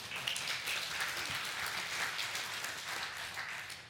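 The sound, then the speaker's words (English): A church audience applauds steadily, a dense wash of many hands clapping at once that holds at an even, fairly loud level throughout without dying down. “You can clap for that.”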